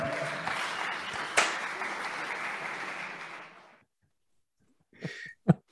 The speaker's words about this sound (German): ich, ich weiß, ich, ich, stand neben der Person, die diesen Applaus angezettelt hat.